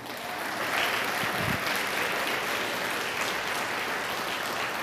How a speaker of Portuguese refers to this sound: Forte aplauso ao Rei!